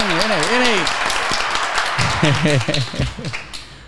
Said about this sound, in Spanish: un aplauso, un aplauso, la gente que está aquí en el salón.